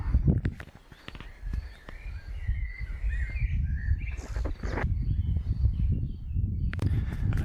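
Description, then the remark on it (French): Small birds chirp and call in short, high-pitched bursts at a wildlife hide during a wait for a badger, over a steady low rumble, with occasional soft thuds and rustles; no one speaks. “c'est aussi de voir euh, eh ben, d'autres petits euh, mammifères ou des oiseaux qui viennent ici là se poser”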